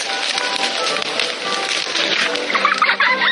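A busy barnyard of chickens clucking continuously, with a few louder squawking calls rising near the end, fairly loud, with no talking.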